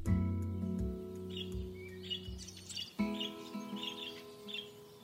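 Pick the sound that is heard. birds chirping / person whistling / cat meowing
birds chirping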